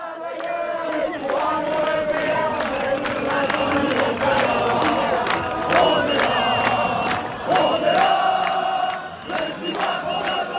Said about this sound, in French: En fait, tous les gens, ils ont commencé à chanter contre lui. Ça a été un moment, mais un moment d'extase totale en fait.